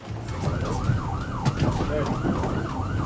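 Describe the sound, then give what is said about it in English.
An ambulance siren in a staged film scene yelps in fast, repeating rising-and-falling cycles, steady over a low rumble of road noise throughout. “so the ambulance scene was a staged thing, intentionally shot as if it were on an iPhone.”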